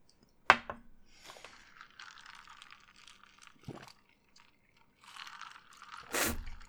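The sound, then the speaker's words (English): Someone drinks a kale smoothie: wet, noisy slurps and gulps come in uneven bursts over several seconds, broken by a few sharp clicks. No one speaks. “That was the sound of my Microsoft sponsored creme de menthe smoothie uh, kale smoothie, as a matter of fact.”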